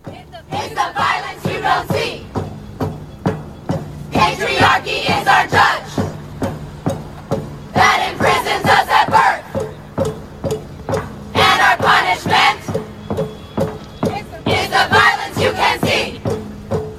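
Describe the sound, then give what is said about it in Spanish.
About 100 women chant in unison outside a Manhattan court in New York, directed at Harvey Weinstein on one of the first days of his trial, in loud rhythmic bursts of shouted voices repeating in regular phrases, with short pauses between each chanted line. “El 10 de enero pasado, unas 100 mujeres se plantaron afuera de una corte de Manhattan, en Nueva York, a cantarlo para Harvey Weinstein.”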